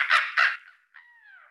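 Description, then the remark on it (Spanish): A person imitates a seagull: two harsh, raspy squawks in quick succession, then a thinner drawn-out cry that slides gently downward. Fairly loud, with no other talking. “Una gaviota, ¿sabes? De, tanta playa, pues los sonidos se te van quedando.”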